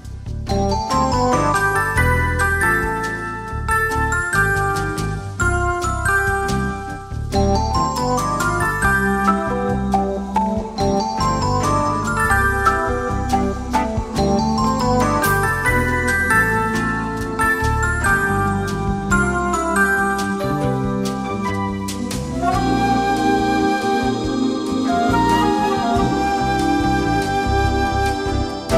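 Calm, easy-listening instrumental music plays steadily throughout, with soft melodic tones and chiming notes over a warm low backing, evenly loud and close, with no voices.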